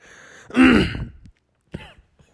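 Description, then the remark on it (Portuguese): Someone clears their throat loudly, a rough, raspy rumble, then after a short pause gives a second, briefer and softer clearing. No speech accompanies it. “Zoou comigo a vida toda, pigarro. pigarro.”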